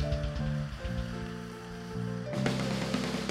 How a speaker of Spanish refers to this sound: Uno, dos y tres. Dele fuerte palmas a él